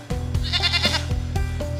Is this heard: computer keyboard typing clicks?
no